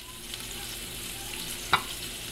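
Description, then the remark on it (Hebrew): Homemade burgers of ground meat, fried at home by a father, sizzle steadily in a pan, a dense crackling hiss that holds even throughout, with one sharper pop standing out near the end. No one speaks. “ואבא מתחיל לטגן.”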